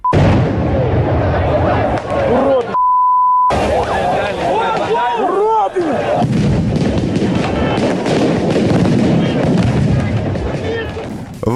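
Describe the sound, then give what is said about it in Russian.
Repeated sharp bangs and blasts of gunfire and explosions crackle through a loud, crowded street scene in central Minsk at night with shouting voices, briefly cut by a steady electronic beep before the chaotic noise resumes. “Хотя в центре Минска все равно была слышна и стрельба, и взрывы.”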